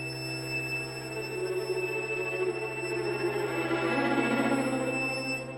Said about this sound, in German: Nicht das Glucksen von Wasser oder das Zwitschern von Vögeln. Nichts davon, gar nichts. Nur das Rauschen und den Pfeifton.